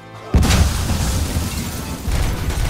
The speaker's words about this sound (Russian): ну и, конечно, что-нибудь взрывающееся. Правда, оно порой бахает прямо перед перед тобой, то ли коллайдер задевает стены, то ли его подстреливают в воздухе сразу. Но если уж залетело куда, то мало не покажется.